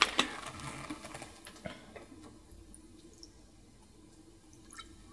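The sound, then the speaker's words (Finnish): A drink is poured into glasses: a sharp clink at the start, then a quiet, uneven stream of liquid with scattered drips and small glassy ticks. No one speaks. “Tota, täytä lasit vielä.”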